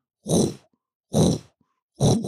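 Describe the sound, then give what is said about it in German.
A voice imitates a dull, droning football stadium chant: three low, heavy vocal blasts in a steady rhythm, each about half a second long with short pauses between, fairly loud. “fängt dieses stumpfe Gedröhne plötzlich im Stadion an.”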